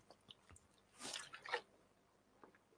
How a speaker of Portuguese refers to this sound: Beber uma aguinha aqui.